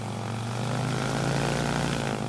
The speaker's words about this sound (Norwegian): Det er rene julaften å være vitne til flyet som takser seg av gårde mot rullebanen. Utstyrt med magnetometer på vingene og avansert mottakerutstyr i cockpiten.